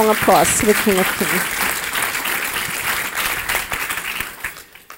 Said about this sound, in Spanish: Dele ese fuerte aplauso a ese Rey de Reyes.